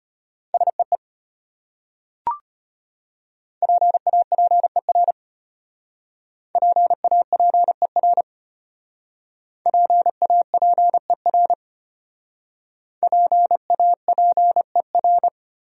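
Morse code beeps in a steady mid-pitched tone, keyed at 25 words per minute in rapid dots and dashes that spell five separate common English words divided by short pauses, with one brief click early on.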